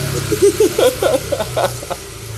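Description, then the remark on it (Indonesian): A motorcycle engine drones past, a steady low hum with a few rising and falling whines over a couple of seconds, moderately loud, with no talking. “Oh, ternyata masih sama ada motor lewat.”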